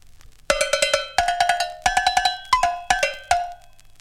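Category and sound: cowbell being struck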